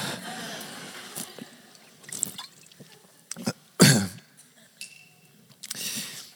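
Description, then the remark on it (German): Sounds of someone drinking water: a few separate sips and swallows with a louder throaty gulp near the middle, between quiet pauses and with no talking. “Könnt mir mal einer ganz kurz Wasser geben?”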